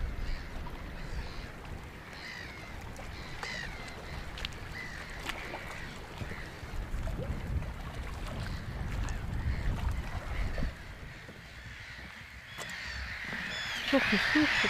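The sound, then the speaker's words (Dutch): A dense chorus of seabirds calls at night at Vogeleiland, harsh croaking cries overlapping continuously, with a low rumble of wind and water underneath and a louder burst of calls near the end. “De vogels zijn er nog.”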